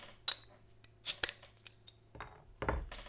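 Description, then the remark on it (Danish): Sharp metallic clicks and a clink of an opener against the cap of a bottle of Hancock Old Gambrinus light beer, followed by a short burst of fizzing hiss as it comes open, fairly quiet. “Lad os åbne den.”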